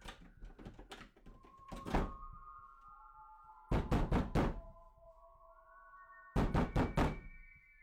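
Someone bangs on the stall doors of a dark, run-down public toilet one by one: heavy, loud bangs in separate bursts of three or four rapid blows, with pauses between each burst, over a steady, eerie humming drone.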